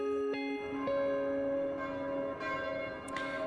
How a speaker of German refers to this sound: Glocken höre ich da.